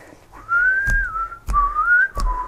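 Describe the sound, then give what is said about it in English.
A person whistles a short, bouncy melody, the pitch sliding smoothly between notes, with a few soft thumps underneath as if keeping time. “Um, that was actually a pretty accurate whistle there.”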